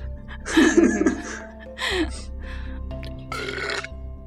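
A loud, guttural burp rumbles out, rough and drawn-out like an orc grunt, followed by scattered laughter and chuckling over a low background hum.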